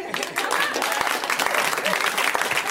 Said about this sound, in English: Sometimes you just make a little extra effort, the rest of the audience, and you too could get a round of applause for yourselves.